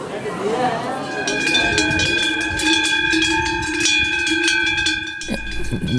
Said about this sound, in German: Nicht ganz, nicht ganz. Äh, Glocken sind doch noch ein bisschen weiter weg. Aber äh, man findet sie auch auf dieser Alp oben.